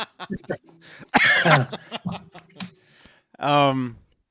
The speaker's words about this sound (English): Uh, excuse me. See, now there's my cough.